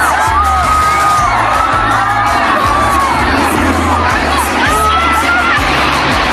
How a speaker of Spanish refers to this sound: Y esto que escuchan es el tsunami artificial que se ha producido en una piscina de olas en la región de Manchuria, en China.